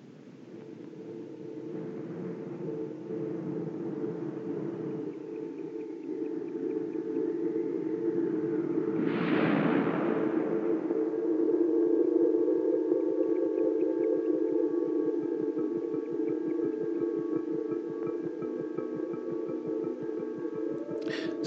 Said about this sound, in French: ça finit pas par démarrer. je pensais que ça allait starter euh, plus vite que ça. Euh, ça, ce que, ce que le ce qu'on est supposé entendre, c'est la trame sonore de. Pas la trame sonore, le, trail, le, la bande-annonce de Alien.